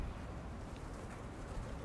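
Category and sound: bird, pigeon cooing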